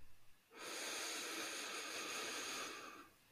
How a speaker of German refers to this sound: Genau, dann kannst du einmal genau die Zungenspitze, wie gesagt, so ein bisschen oben an den Gaumen äh, mhm. äh, und dann atmen wir einmal durch die Nase ein.